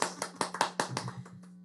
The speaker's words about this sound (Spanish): Oh, aplausos, aplausos.